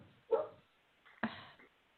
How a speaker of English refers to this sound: And I do apologize for the dog barking in the background.